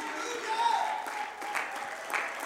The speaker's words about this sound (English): Oh, somebody ought to clap your hands unto the Lord. Somebody ought to raise your voice and say, God, thank you for loving me.